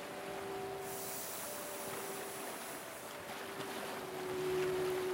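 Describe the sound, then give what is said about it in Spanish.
A long, deep inhaled breath drawn in a steady, breathy whoosh that imitates ocean waves, swelling a little toward the end over a faint, even background hum; the first of three deep breaths in a meditation exercise. “Haremos tres respiraciones profundas, simulando el sonido de las olas del mar.”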